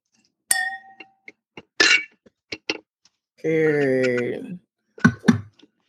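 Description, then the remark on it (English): A single bright clink of glasses in a toast rings out near the start and fades with a short shimmer, followed by scattered clicks, a few voices and a drawn-out vocal sound. “Cheers one more time.”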